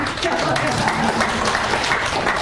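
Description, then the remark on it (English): An audience claps in a steady, dense patter of overlapping hand claps that holds at an even, moderate loudness for a couple of seconds, with faint voices mixed in underneath. “Don't clap until you read it.”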